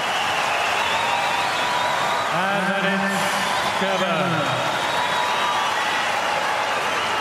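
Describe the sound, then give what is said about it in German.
Tennis spectators applaud at Angelique Kerber's match point for the Daphne Akhurst Memorial Cup, after two hours and eight minutes of play, in a steady, dense wash of clapping and crowd noise that lasts throughout, while a single voice rises and falls briefly in the middle. “Hören sich die Zuschauer an hier.”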